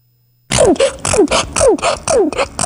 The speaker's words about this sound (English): Poor girl sneezing 20,000 times a day. Um, but maybe he's got a cure for the sneezes.